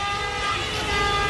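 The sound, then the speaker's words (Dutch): Traffic horns in Calcutta, India, blare without letup, several overlapping tones merging into one loud, steady wall of honking, with no voices. “Constante getoeter.”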